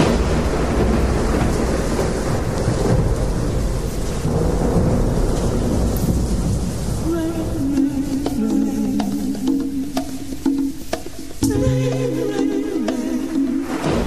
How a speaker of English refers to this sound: It's weird though. What is? Just this. Rain? Or just like heavy, heavy rain. It's kind of nice.